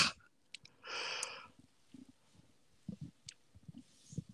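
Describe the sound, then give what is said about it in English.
A person yawns once, a breathy exhale of under a second, followed by soft scattered mouth and breathing noises with no talking. “I heard you yawning.”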